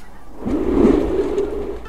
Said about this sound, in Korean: 장이관의 지금 자연은 얼음 덮인 임진강의 소리입니다. 임진강의 얼음이 삐걱거리기도 하고 갈라지기도 하며 으르렁대며 소리를 만듭니다.